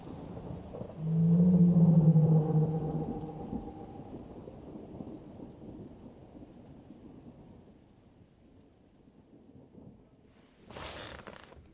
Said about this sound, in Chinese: 你说为什么我们一出门，这雨就像发疯了一样倒下来？ 不知道，但是我猜，这场大雨应该跟天上那条鱼有关。